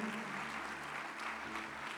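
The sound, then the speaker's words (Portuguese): A crowd claps steadily for about two seconds, applauding the Lord, a dense, even wash of applause at moderate volume with no voices standing out. “Pode aplaudir o Senhor aí?”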